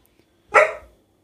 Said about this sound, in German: oh, Entschuldigung, Männer. Den Hund aufgeweckt.